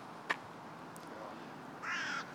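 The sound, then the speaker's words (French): A carrion crow gives a harsh, drawn-out caw near the end, preceded by a brief sharp call, heard outdoors over a soft background hum. “donc les corneilles, elles font leur nid aussi dans, dans des grands arbres comme ça.”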